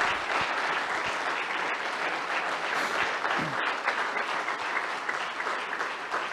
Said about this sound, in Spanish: Bien fuerte ese aplauso, vale la pena, es para la palabra de Dios.